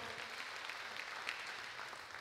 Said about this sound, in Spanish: Y créame, déselo fuerte ese aplauso al Señor.